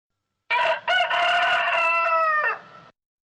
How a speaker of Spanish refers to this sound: Vamos a escuchar la primera onomatopeya que está relacionada con la historia que os he, presentado anteriormente y ahora la explico. Es el sonido del gallo.